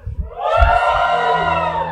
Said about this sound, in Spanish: Está bien ese grito de júbilo